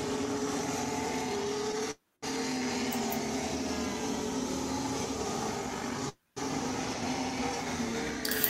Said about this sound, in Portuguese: E notem como passa perto o carro, né? Porque a pista é estreita,